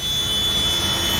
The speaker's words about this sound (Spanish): Este son casi 7 minutos de vídeo. Madre mía. Y venga a pasar tractores, y venga a pasar tractores, y venga a pasar tractores.